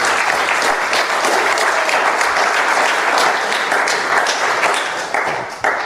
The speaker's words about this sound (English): Big round applause for Dana.